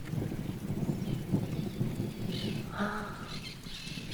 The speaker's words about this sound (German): Es donnert und gewittert. Und alle Tiere freuen sich. Es fallen schon die ersten Tropfen Regen. Die Sittiche sind am Kreischen.